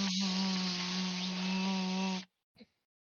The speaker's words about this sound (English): So, uh, but yeah, I'm trying to make sure, like, goddamn cicadas. Just uh, hopefully they shut up after sunset.